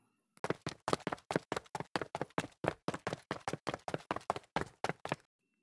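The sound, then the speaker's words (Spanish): Quick footsteps hurry down a flight of stairs as people run out to the street, about twenty sharp thuds in a fast, steady rhythm before stopping abruptly. No voices are heard. “salen corriendo a la calle, bajando las escaleras rapidísimo.”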